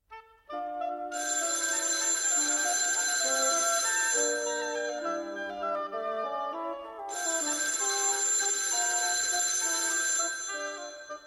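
A telephone rings in two long, bright, buzzing bursts of about three seconds each, separated by a short pause, over a steady tonal backdrop with no one speaking.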